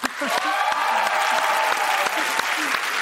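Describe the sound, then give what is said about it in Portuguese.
An audience applauds the grand-niece of Tarsila do Amaral steadily for about three seconds, a dense, even wash of clapping with a few sharper individual claps standing out, and faint voices murmuring underneath. “Oh, Vamos aplaudir a sobrinha neta de Tarsila,”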